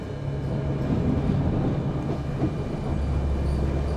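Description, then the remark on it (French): A metro train with its lights off rumbles through a tunnel, approaching from behind people walking in it, a deep continuous roar with a low droning hum underneath, staying fairly steady and loud throughout with no voices. “Qu'est-ce qu'on entend On entend un métro qui arrive tout éteint derrière nous.”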